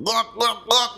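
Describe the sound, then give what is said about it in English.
A voice imitates a wet, gagging gluck sound: three quick throaty bursts in a steady rhythm, loud, with no other talking. “the gluck gluck.”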